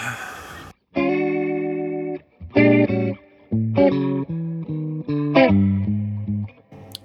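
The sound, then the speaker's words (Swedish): Electric guitar played through a Leslie rotary speaker effect: a short burst of noise, then a series of loud, sustained chords with brief gaps, their tone swirling and slightly distorted, with no talking. “Jag tror du kan, det är mitt Leslie Sound som är på där på Honja, så det är bara att trycka...”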